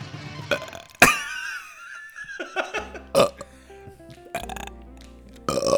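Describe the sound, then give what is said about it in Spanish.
A loud, drawn-out burp erupts abruptly, rumbling and croaking with shifting pitch before trailing into a few more guttural belching gurgles, prominent with no talking. “Eructin se escucha en estéreo”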